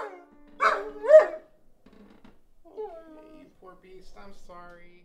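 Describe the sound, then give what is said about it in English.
A dog lets out two loud barks in quick succession, followed by several softer, drawn-out whining yelps that trail off. “No dogs were harmed in the making of this story”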